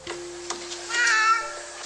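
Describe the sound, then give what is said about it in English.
A single cat meow rises clearly in the middle of the moment, a short drawn-out cry over a quiet, steady background hum with a couple of faint clicks. “Kittens. He means kittens.”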